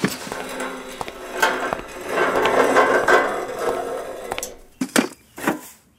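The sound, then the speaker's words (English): A lawn chair is unfolded and set down in a driveway: a run of scraping, creaking rattles building into a busy clatter, then a few sharp clacks and knocks as it settles. No one speaks. “Go ahead and grab one of those lawn chairs over there and set it up in the driveway.”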